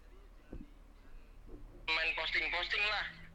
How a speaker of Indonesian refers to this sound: ini anjing si Aceh pasti telepon lagi.